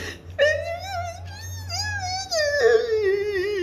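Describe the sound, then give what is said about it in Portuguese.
A voice imitates sobbing while trying to explain why they are crying, producing wavering, whimpering wails that rise and fall as if struggling to get words out. It is moderately loud and continuous for a few seconds. “Aí eu ia chorar mais.”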